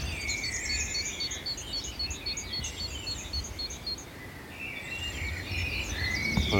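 A great tit calls outdoors in Paris around 4:30 in the morning, repeating a quick, even series of short high notes, with other birdsong and a low rural hum in the background.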